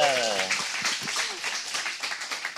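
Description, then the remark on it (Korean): An audience breaks into steady applause, a dense crackle of many hands clapping that holds for a few seconds, with a voice speaking briefly over its start. “이야, 박수 한번 부탁게요”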